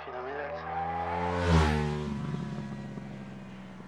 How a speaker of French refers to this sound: Ah, je suis étonné quand il coupe qu'on entende un bruit comme ça. Je suis étonné. Mais tu sais, euh, depuis qu'on a monté l'injection sur les motos, on sent, sent, les bruits sont complètement différents euh, que mon époque.